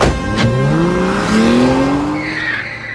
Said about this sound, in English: As soon as we got outside the gates, a car screeched to a stop in front of us.